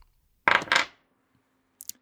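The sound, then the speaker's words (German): A small six-sided die clatters onto a hard tabletop with two quick, sharp knocks, then goes quiet, followed by a faint light tick a moment later; the die is rolled to determine a character attribute in a game. “Zweimal ein W6 für hohes und niedriges Attribut.”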